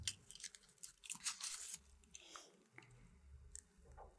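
Close, wet chewing with irregular crunchy and squishy mouth noises, loudest in the first second and a half, then softer smacking over a low background hum; no one speaks.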